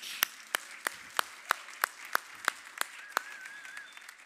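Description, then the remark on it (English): Applause from the regulars at the Rock Church for first- and second-time guests, in a steady, even rhythm: about ten sharp, crisp claps in unison at a brisk regular pace, with a faint high whistle near the end and no talking. “this round of applause is to you from all the regulars at the Rock Church.”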